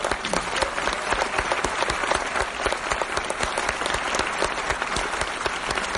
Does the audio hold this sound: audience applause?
yes